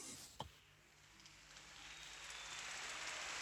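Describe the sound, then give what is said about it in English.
Soft surface noise of a vinyl record put on at the beginning of an album: a single thump near the start, then a steady hiss scattered with faint pops and ticks, slowly growing a little louder. “Hear the crackle.”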